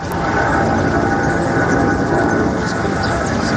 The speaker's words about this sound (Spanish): Más de 200 aviones al día por la mañana y por la noche es lo que denuncian los vecinos de San Sebastián de los Reyes que tienen que soportar un ruido como este.